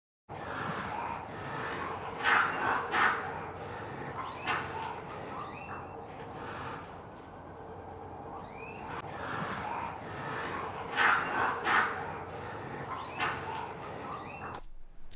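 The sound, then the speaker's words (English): A field recording of raccoons fighting outdoors at a house, with bursts of shrill squeals and chattering cries that rise and fall in waves over a steady rustling background, with no voices. “Uh, I got a really nice field recording of a raccoon fight at my parents' house, so I'm going to put that into the granulator in Kaivo.”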